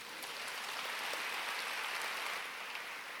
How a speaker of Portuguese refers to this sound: Quem pode aplaudir esse Deus maravilhoso?